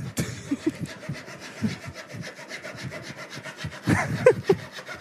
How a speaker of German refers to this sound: Zwei Physiker sägen.